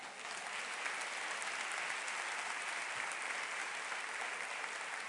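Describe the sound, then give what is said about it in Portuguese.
A church audience claps steadily to applaud the Bible during a sermon, a dense, even wash of applause that holds at a fairly constant level for about five seconds with no voices rising above it. “Você pode aplaudir a Bíblia?”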